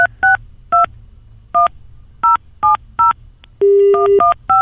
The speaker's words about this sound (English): we got like a dial tone! Yay!